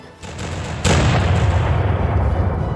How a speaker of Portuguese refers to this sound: Todos os canhões do arpia foram colocados para fora ao mesmo tempo e disparados um após o outro, sem piedade.